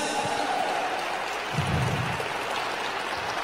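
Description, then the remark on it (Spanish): Sustained audience applause for the Holy Spirit at the Aviva México church, a dense, steady wash of many hands clapping that fills the whole clip at an even, moderate loudness, with no voices standing out. “Y si le vas a aplaudir, que sea con ganas.”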